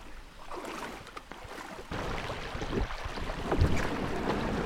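A canoe scrapes and drags as it is pulled through shallow river water by people wading, with sloshing, gurgling water and wind noise, growing slightly louder toward the end.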